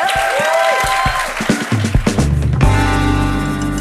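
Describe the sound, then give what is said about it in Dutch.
Studio audience applause in the Koek en Verhulst show on Play 4, after the Flemish minister-president announced garden parties of 50 people from 9 June. A steady wash of clapping mixed with bright musical tones, swelling louder near the end and holding at full strength. “Applaus in de Koek en Verhulst show op Play 4.”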